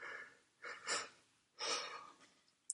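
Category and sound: human body sound, person yawning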